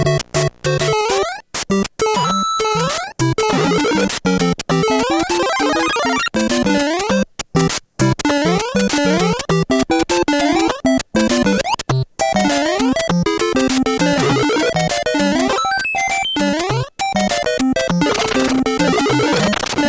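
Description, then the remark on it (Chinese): Busy, dense video game music fills the whole stretch, with rapid bright melodic lines sweeping up and down over a steady loud backing and brief sharp cuts, no voices. “所以那我们现在就来听听打电动的音乐好了。”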